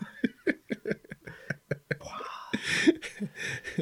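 Close, soft rustling of clothing as a top is pulled off, a brief scuffing swish lasting a couple of seconds, preceded by breathy rhythmic laughter.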